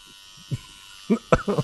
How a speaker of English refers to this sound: it's a buzzer from the barber.